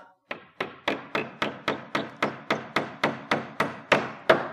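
A hammer drives nails into wood with a steady run of about fourteen sharp, evenly spaced blows, each a crisp knock with a short ringing decay, fairly loud, with no talking.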